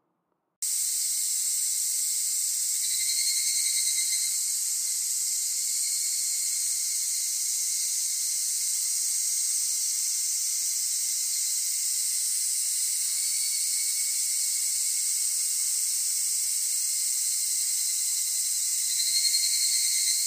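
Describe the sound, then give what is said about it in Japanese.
A large brown cicada (aburazemi), a species found throughout Japan, buzzes in one continuous, loud, sizzling drone for about twenty seconds, steady throughout with slight swells, like oil frying, and no voices or other sounds. “油ゼミは日本の全部の場所に住んでいるそうです。では油ゼミを聞いてみましょう。”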